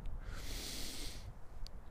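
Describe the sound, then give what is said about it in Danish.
A deep breath drawn in through the nose into the belly and blown back out, an airy rush lasting about a second, followed by a brief quiet moment. No talking. “prøv at trække vejret med næsen, uden at du løfter skuldrene og puste ud”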